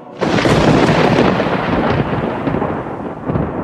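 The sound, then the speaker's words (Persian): A loud thunder clap bursts in suddenly and rolls on as a dense, sustained rumble, staying heavy throughout with faint hiss like rain underneath. “و از نشانه این است که برق آسمان را به شما نشان می دهد که هم مایه امید است برای آمدن باران به هم باعث ترس و وحشت شماست”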